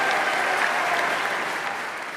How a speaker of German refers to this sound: Ja, damals am 20. September 2017. Da haben sie im Nationalrat noch geklatscht für den frisch gewählten Bundesrat Ignazio Cassis.